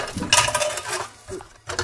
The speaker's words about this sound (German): So, ich tue mal eben die Zwiebel schälen und schneiden.